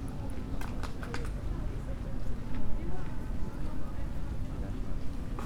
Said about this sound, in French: des gens qui marchent.